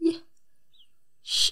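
A brief vocal catch, a moment of quiet, then a sharp, breathy sneeze burst, loud and hissy, cutting off abruptly.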